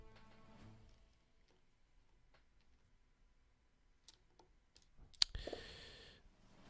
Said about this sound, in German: Das heißt, erstmal würfel ich nochmal ein paar Sachen aus. Ganz kleinen Moment.